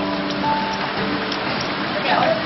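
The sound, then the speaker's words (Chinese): Heavy rain pours down in a steady, dense hiss that holds at an even loudness throughout, with a faint muffled voice and low hum beneath it. “十点半呢，你们那边下雨了是吧？我这嘎下可大了。”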